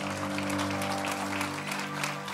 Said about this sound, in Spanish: ¿Cuántos dicen amén? Dele un aplauso fuerte a Cristo porque Él es bueno.